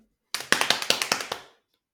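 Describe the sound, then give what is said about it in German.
A pen drums rapidly on a hard surface: roughly ten crisp, bright taps in a quick, slightly uneven rhythm, fairly loud, then the tapping breaks off abruptly as the pen flies away. No one speaks. “Ihr habt es gehört, im Trommeln den Stift weggeflackt.”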